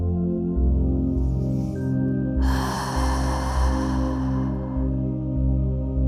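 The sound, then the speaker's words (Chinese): A long, breathy exhale through the mouth, an audible sigh lasting a couple of seconds, made during a guided breathing exercise of inhaling through the nose and exhaling through the mouth, rising over a steady, soft musical drone that continues underneath. “我们在接下来的呼吸当中，我们采用鼻吸口呼的方式，在呼气的时候。你可以发出声音”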